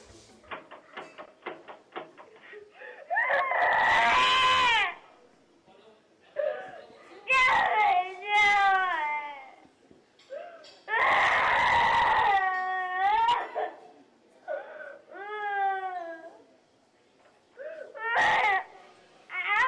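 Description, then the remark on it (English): A child screams and cries in loud bursts, each wail rising and falling in pitch, repeating several times with short gasping pauses and softer whimpers between them. “Shut up, kid. I'm trying to sleep.”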